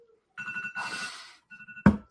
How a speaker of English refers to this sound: Oh, I gotta go, man. I've got a meeting actually. I've got my alarm going off for OKLP stuff.